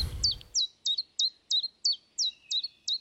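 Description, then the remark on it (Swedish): A chiffchaff sings a steady series of sharp, high two-tone notes, about eight evenly spaced chirps in a bouncing rhythm, clear, after a brief low rumble at the start. “Så av just sångarna så är gransångaren den som dyker upp först.”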